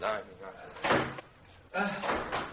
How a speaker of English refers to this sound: Mind the revolving door. Oh, yes.